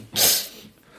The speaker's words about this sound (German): Gesundheit.